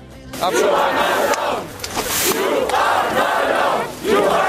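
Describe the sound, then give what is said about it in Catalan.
A loud protest crowd at a demonstration against a coal mine in Germany, as German police remove protesters including Greta Thunberg, chants in unison, voices rising and falling in a steady rhythmic cycle, with shouting and general commotion filling the space throughout. “Parlem de Greta Thunberg i aquest és el moment en què la policia alemanya la desallotjava eh, precisament d'una manifestació en contra d'una mina de carbó.”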